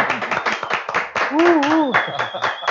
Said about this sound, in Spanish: ¿Qué tal los aplausos de aquí, de toda mi gente? Mucha porra, ¿eh? mucha porra.